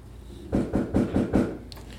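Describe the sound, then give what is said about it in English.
Five quick, evenly spaced knocks on a door as a pizza arrives, firm and fairly loud with a dull, low thud, followed by a faint click. Nobody speaks. “Boy, that knocks scared the but Jesus out of us.”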